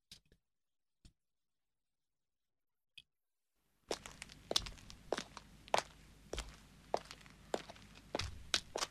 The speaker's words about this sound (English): from, from, his own experience from walking on that gravel um, driveway. Um, so they found all of that stuff on sound effects records.